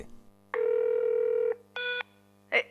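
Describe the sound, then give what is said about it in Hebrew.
A telephone line sounds two steady electronic tones, one long and one shorter, followed by a brief click-like burst, with a low hum running underneath. “התקשרתי שלוש פעמים. היה לי משהו חשוב לומר, אבל כנראה שוב לא שמעתם את הטלפון.”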